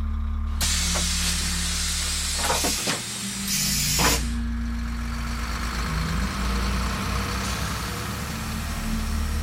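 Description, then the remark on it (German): A bus engine idles with a steady low rumble while the driver sits inside, broken by several sharp bursts of hissing air in the first few seconds; no one speaks. “Den Bus mit seinem laufenden Motor, in dem der Fahrer gesessen und uns zugesehen hat.”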